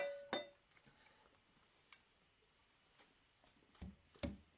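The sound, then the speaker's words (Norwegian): A sharp, bright clink rings out once near the start as glasses touch in a final toast of the evening, followed by a few softer knocks and taps. “Nei, vi tar en eh, siste skål for kvelden.”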